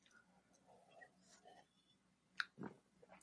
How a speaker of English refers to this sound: We sipped in tandem there. We did. Yeah. This is definitely not quite hitting the spot.